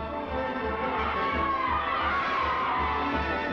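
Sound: stadium crowd cheering wildly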